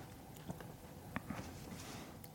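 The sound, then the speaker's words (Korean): Soft rustling of paper pages being turned, with a few brief crisp crackles scattered over a couple of seconds against a quiet background, and no talking. “종이 넘기는 소리 뭔가 있어 보여요.”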